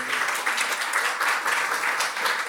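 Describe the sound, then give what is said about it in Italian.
A church audience at Chiesa Vita Nuova applauds guests at the first Sunday service of the year, many hands clapping in a dense, continuous patter that stays at an even, moderately loud level throughout, with no talking over it. “Possiamo dargli un applauso.”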